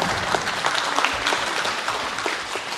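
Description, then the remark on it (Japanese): A crowd claps steadily, a dense and continuous wash of many hands applauding to welcome presenters from Mitsui & Co. Logistics Partners at a Nippon Logistics Fund presentation, holding an even level throughout with no voices standing out. “皆さん盛大な拍手でお迎えください”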